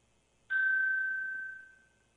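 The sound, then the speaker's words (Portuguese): A single strike of a meditation bell rings out clearly on its own during a guided meditation, its pure sustained tone slowly fading over a couple of seconds. “Eu vou convidar que feche os olhos e eu vou tocar um sino.”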